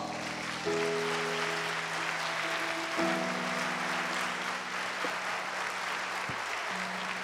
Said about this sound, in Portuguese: Quer lhe dar outro aplauso?